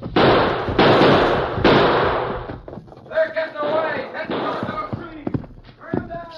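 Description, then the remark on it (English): A gunfire sound effect: three loud, sharp bursts of shots at a steady pace, each with a rough, crackling tail, as people stay down, run for it and keep on firing. Afterwards people speak over a quieter background. “Now stay down when you run and keep on firing.”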